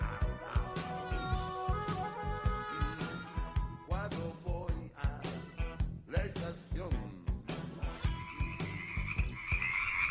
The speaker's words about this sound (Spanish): Oyen todas esas ranitas.